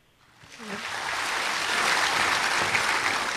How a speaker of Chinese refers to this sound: 嗯， 谢谢大家，我的诗念完了。 嗯，很棒，掌声。